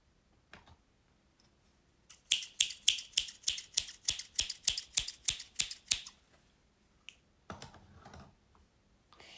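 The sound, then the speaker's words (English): A quick run of about a dozen crisp metallic snips from a pair of scissors, evenly paced over a few seconds, with a couple of stray clicks afterward and no talking. “Jetzt kommen wir zu einer Schere.”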